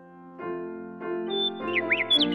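A bird singing in a tree: bright, high chirps and quick rising tweets flutter over a steady tonal backing that swells in a few short blocks, growing busier toward the end. No one talks.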